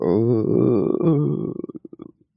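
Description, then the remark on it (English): A person vocally imitates the low, pained groan of someone in constant pain and sickness, a drawn-out wavering moan that trails off into a few stuttering, creaky pulses before fading out. “somebody, maybe several rooms down, uh, kind of just softly just moaning that kind of groan of of just pain and, and sickness that just won't recede.”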